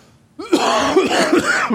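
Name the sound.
coughing and throat clearing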